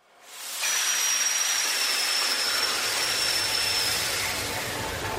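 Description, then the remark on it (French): A ship's four-stroke 8ZL40 engine, started in the morning half an hour before casting off, roars steadily, a dense, loud wall of noise with a hissing edge and a thin high whine, deepening with low rumble partway through. “Et le moteur qui a été euh, allumé le matin, une demi-heure avant de larguer les amarres, qui est un moteur 8ZL40,”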